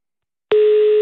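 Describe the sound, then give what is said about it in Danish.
After a moment of silence, a loud, steady telephone tone abruptly begins and holds, the kind heard when a call fails to connect. No one speaks. “Er, er den igennem? Nej, jeg, det så ud som om, den røg ud. Prøv igen”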